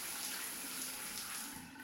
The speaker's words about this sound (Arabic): بتقوم تعمل دوش سريع حمام مي باردة فتلة صغيرة بهالحنفية بتجي المي يا سلام مي زلال بتطفي الحرارة ولو مؤقتا